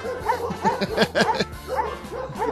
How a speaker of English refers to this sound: I'm playing dog noises, and it, we and we take care of dogs. Yeah, and it makes me think I have to go outside and see why the dogs are barking.